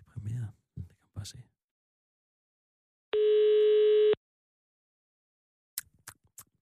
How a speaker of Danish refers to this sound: Nummer, du ringer til, er optaget.